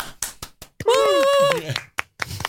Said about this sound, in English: ladies and gentlemen, give him a great round of applause,